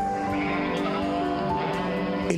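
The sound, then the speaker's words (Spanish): Sheep bleat steadily, their wavering, nasal cries overlapping into a continuous flock chorus for a couple of seconds, with no talking. “Pues entonces anda y mete todas las ovejas en la casa”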